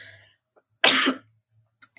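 A single loud, breathy burst like a sneeze or sharp cough, lasting about a third of a second, with no talking and only a couple of faint clicks afterward.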